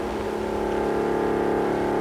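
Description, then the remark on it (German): An aircraft engine, Lindbergh's motor in the 1929 radio play Der Lindbergflug by Kurt Weill, Paul Hindemith and Bertolt Brecht, drones steadily at a constant, loud pitch for the whole stretch, a dense mechanical hum with a slight rhythmic throb and no voices over it. “Lindberg spricht mit seinem Motor.”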